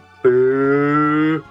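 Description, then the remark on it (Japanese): A cat lets out one long, drawn-out meow, loud, holding a steady pitch for just over a second before cutting off, with no one talking. “にゃんこの鳴き声ねこの番組を初めて聞いた人はびっくりするでしょうねどっかで猫鳴いてるって これどこで猫鳴いてんねんってなんでしょうね 確かにな綺麗に入ってますからね”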